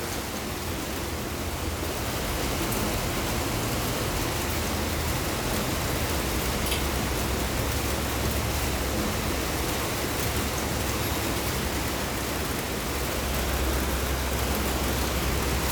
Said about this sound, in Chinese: 有很多呃雨水啊打到屋檐的噼里啪啦的声音哦。这个台湾的呃建筑物有很多屋檐的材质啊，大概是这种波浪形的材质。跟国外也有点不太一样啊，所以不同的地方下雨的声音其实不太一样的。